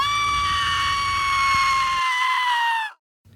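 A woman lets out one long, shrill scream, loud and close, its pitch sagging slightly before it cuts off abruptly, with a low rumble beneath the first part.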